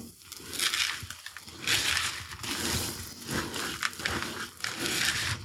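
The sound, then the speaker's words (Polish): Steady mixing in a bowl: thick rye and buckwheat sourdough bread dough being stirred with one glass of sunflower seeds and half a glass of flaxseed, giving a continuous gritty, squelching scrape that swells in rhythmic strokes, with no voices. “Wsypuję jedną szklankę ziaren słonecznika i pół szklanki siemnialnianego. Dalej mieszam.”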